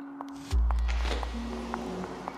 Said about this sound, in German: Abends ist es im Krankenhaus still. Man hört die Schritte von Krankenpflegerinnen auf dem Gang, das Klacken und Surren der Automatiktüren, entferntes Piepen von Monitoren.